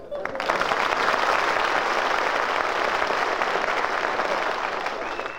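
A studio audience applauds, loud dense clapping rising quickly and holding steady for several seconds before easing slightly at the end.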